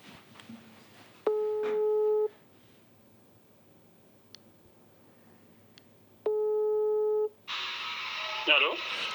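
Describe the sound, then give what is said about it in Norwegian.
Two long steady ringback tones on a phone line while calling a kebab shop, each about a second, separated by a quiet pause, followed by a burst of noisy line hiss as the call connects. “Skal vi prøve å ringe kebabsjappa? vi, vi har funnet et nummer her. Vi prøver.”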